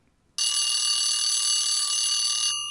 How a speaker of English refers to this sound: And the alarm bell, as always, brings to an end another interview show.